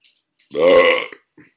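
A single loud, drawn-out burp lasting about half a second, resonant and gurgly, close to the mic, followed by a faint short breathy sound.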